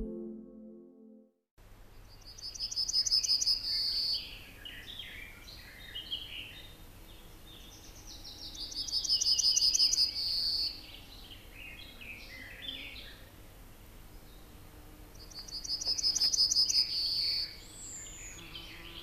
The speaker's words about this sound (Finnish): Moni vanhempi lintuharrastaja muistelee kaiholla talviruokintapaikoille pyrähteleviä isoja, värikkäitä ja eloisia keltasirkkuparvia – ja ennen kaikkea niiden hauskoja ääniä.